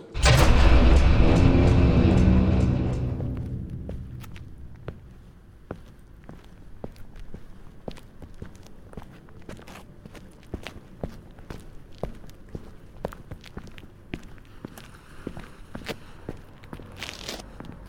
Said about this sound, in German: bricht einen Wagen auf und schließt ihn danach kurz.